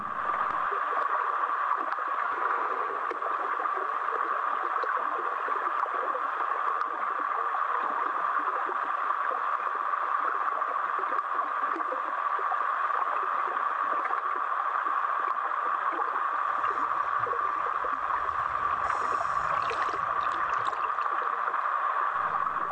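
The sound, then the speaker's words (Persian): Rain heard from underwater: a steady, dense, muffled hiss of countless tiny impacts, even and unbroken throughout, with faint gurgling underneath and no voices. “این صدای بارونه از زیر آب اینقدر کیف داره فکر کن زیر آب باشی بعد اون بالا داره شور شور بارون میاد”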